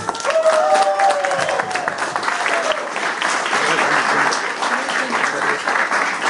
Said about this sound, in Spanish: Quiero que recibamos, pero como que se escuche, como que calentemos la sala con un fuerte aplauso